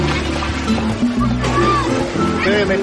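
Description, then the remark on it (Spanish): Waves and surf wash steadily along a busy beach on a sunny summer day, with the continuous murmur of many people talking and calling; the beach is crowded with families and children playing in the water. “A la mañana siguiente, la playa está repleta de familias que disfrutan de un soleado día de verano.”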